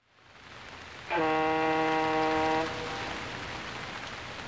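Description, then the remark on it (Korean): Heavy rain pours at Jeju Port as a steady, dense hiss throughout, briefly overlaid by a loud, sustained horn blast of about a second and a half. No one speaks. “제주항에는 비가 더 쏟아지고 있고 바이크 내릴 생각엔 난감하다.”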